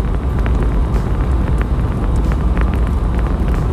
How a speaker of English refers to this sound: Excuse me if you hear all this wind and shit in the background. I'm gonna try to roll my window up.